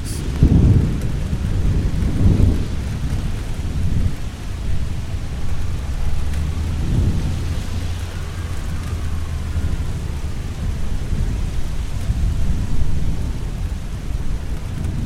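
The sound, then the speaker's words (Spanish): A thunderstorm with steady rain hissing throughout and low thunder rumbling repeatedly, with heavy rolls near the start and again midway, wind-like noise underneath, no voices. “Entonces empezó el viento, la lluvia y una gran tormenta llegó al bosque de nuestros amigos.”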